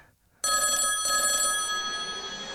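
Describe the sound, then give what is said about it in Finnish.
A telephone bell rings for an incoming call, starting abruptly and continuing, a bright, shimmering metallic trill with a slight warble, loud, with no voices over it. “Ajetaanko nyt se puhelu?”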